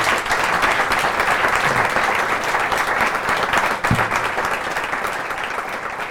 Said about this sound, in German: Ich glaube, das ist ein schöner Applaus wert von unserem Publikum auch.